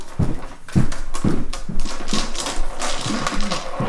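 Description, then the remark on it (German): Irregular clicking and clattering as playing cards are shuffled and dice rattle and tumble onto a table, with several sharp taps spread across a few seconds and no voices. “Ähm, ähm, mischen und dann ziehen und ähm, genau, das gucken, was bei rauskommt. Das gleiche mit den Würfeln im Prinzip, genau.”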